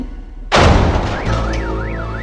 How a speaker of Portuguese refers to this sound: Em cima de um carro, um alarme toca.